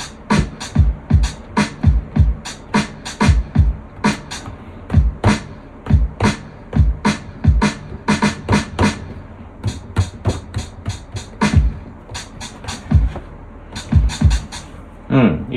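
A programmed drum machine beat for this week's track plays on its own, a simple, steady repeating kick-and-snare pattern with crisp hi-hat hits on top, loud and tightly rhythmic throughout.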